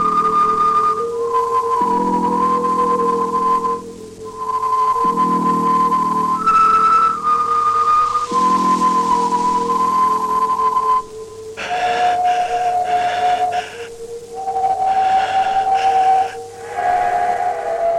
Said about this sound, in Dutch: Een opname op papieren band. En zoals de spreker in het begin zelf zegt, een acousticon. Later klinkt het acousticon zo.